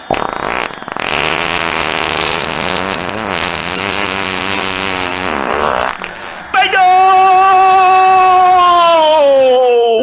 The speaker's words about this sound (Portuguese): Nesse jogo fedorento, vai capricha, peidão. Capricha, o Brasil tá contigo. Vai!